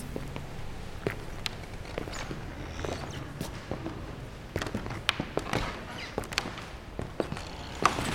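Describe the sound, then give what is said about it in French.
Footsteps cross a creaking wooden parquet floor in the Cluny museum at night, a steady series of soft thuds and clicks at walking pace, with no one talking. “on a fait quelques mètres, on a marché quelques pas sur le, sur le parquet qui grince.”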